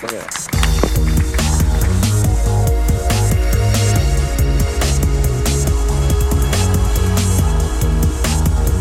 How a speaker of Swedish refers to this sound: Musiken av … från Free Music Archive.